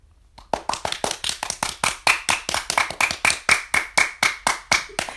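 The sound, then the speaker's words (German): Steady hand clapping, about twenty sharp claps in a quick, even rhythm lasting around five seconds, fairly loud with no voices. “Ganz normal Klatsch.”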